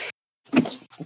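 A single sneeze: a brief breathy sound, a short pause, then a sudden sharp burst trailing into a softer exhale. Nobody speaks.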